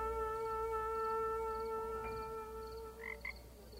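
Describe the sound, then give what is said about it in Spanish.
A steady chorus of frogs croaking in a continuous, droning trill, with a couple of brief higher calls breaking through near the end. No one speaks. “Mientras recogía las últimas ranas”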